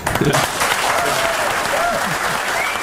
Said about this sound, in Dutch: Applaus voor Epke Zonderland.